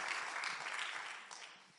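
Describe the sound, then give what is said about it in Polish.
A crowd claps together in a dense, steady burst of applause, bright and hissy, holding fairly loud before easing off slightly toward the end. “Możemy sobie wszyscy razem na rozruszanie zabić. Brawo!”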